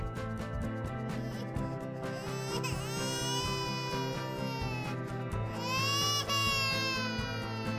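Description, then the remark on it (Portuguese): A baby cries loudly, with two drawn-out, rising wails a few seconds apart over a steady droning background. No one speaks. “Então, sossega a criança e trata o cachorro para me ouvir, hein?”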